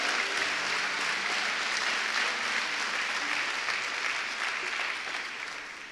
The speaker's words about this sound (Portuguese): Se for para ele, você pode aplaudir mais forte.